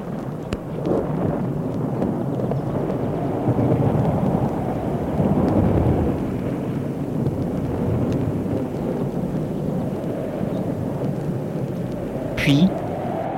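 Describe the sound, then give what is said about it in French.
A thunderstorm rumbles steadily throughout, with deep rolling thunder swelling and fading over a constant wash of rain and wind, loud for the whole stretch. “Petit à petit, l'orage s'est arrêté.”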